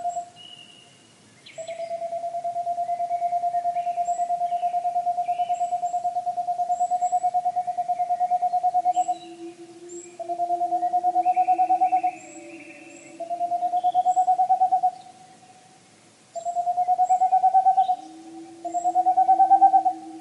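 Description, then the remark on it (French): A Tengmalm's owl gives long, rapid runs of soft hoots that merge into steady trills, repeated in several bursts with short pauses, clear, with no talking. “la petite chouette de Tengmalm”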